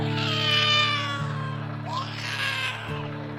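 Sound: cat meowing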